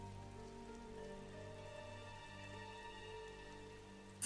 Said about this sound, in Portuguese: Só fomos é. pegos de surpresa por uma tempestade. É, me diga, essas chuvas são fortes são comuns aqui? Bom, tão comuns quanto qualquer outra coisa. Essa chuva foi meio do nada,